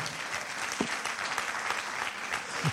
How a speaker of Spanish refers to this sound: Alguien que lo crea y diga gloria a Dios. Alguien que lo crea y le dé un aplauso fuerte al Señor.